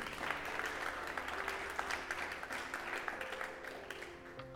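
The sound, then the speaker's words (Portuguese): An audience applauds the Holy Spirit together, a dense steady wash of many hands clapping for several seconds, with faint sustained background tones and no talking over it. “Você pode aplaudir esse Espírito Santo que está contigo?”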